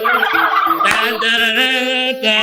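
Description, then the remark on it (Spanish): A turkey gobbles loudly, a rapid warbling burst of harmonic calls running continuously for a couple of seconds, with no talking over it. “Mira, mira, mira, ahí está poniendo eso con el guajolote.”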